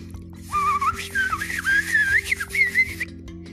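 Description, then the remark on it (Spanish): Someone whistles a lively, warbling bird song, standing for a grateful little bird singing a song to a grandmother, for about two and a half seconds, with quick rising and falling trills over a steady low background hum; no one speaks. “El pajarito muy agradecido le cantó una linda canción a la abuelita.”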